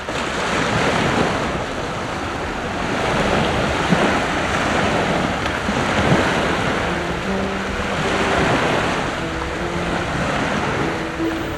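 Steady surf washes continuously onto a beach while gusty wind buffets the microphone, a broad roaring wash with gentle swells in loudness and no voices.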